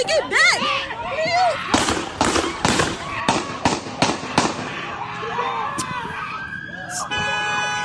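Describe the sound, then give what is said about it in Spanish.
A rapid volley of seven loud, sharp gunshots fired by police officers at a man bursts out in quick succession, with frantic shouting voices before and after and a faint siren-like tone in the background. “O sea, como que si con un disparo no fuera suficiente, ¿no? Hay que darle siete balazos para que, para que amarre.”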